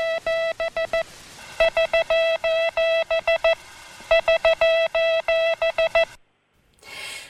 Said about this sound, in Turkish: Az önce duyduğumuz Morse alfabesinin nokta ve çizgi ile ifade edilen uluslararası diliydi. Nokta kısa ritim, çizgi uzun ritim ile ifade ediliyor ve tekrar sistemine bağlı ritimler oluşturan bir haberleşme imkanı sunuyor.